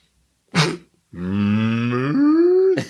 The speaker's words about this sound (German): das ist die Kuh